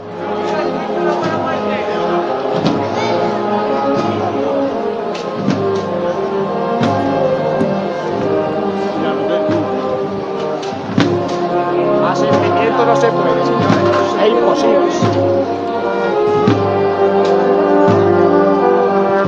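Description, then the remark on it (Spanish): A Holy Week procession band accompanies the Angustias float (trono), the last float of the Cofradía de la Buena Muerte, along the official route on Holy Wednesday. It plays loudly and steadily: sustained brass chords carry a slow, solemn melody over regular drum beats that keep a measured marching pulse throughout. “tenemos en esta carrera oficial al último de los tronos de la Cofradía de la Buena Muerte, en este caso el trono de las angustias, que ya podemos escuchar sus sones en este miércoles santo.”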